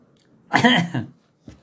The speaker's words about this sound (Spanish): Espérame, es que ya se me, andaba ahogando con el agua.